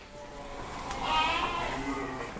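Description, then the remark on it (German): A sheep from a family farm's flock bleats in a wavering, drawn-out cry, with a few overlapping bleats from other sheep over a soft outdoor background hum. “passiert, wir zum Januar 20 unsere Schafe abschaffen und die Schafhaltung einstellen.”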